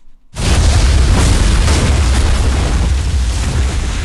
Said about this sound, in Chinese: 这件事过去不久，吴运铎他们要做一个爆破的试验，这时候遇到了难题。